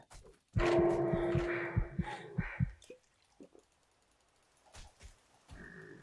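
A female creature in an older video game lets out a loud, growling heavy breath with rasping grunts for a couple of seconds, followed by quieter, scattered snorts and breaths.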